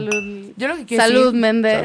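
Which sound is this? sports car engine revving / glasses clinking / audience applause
glasses clinking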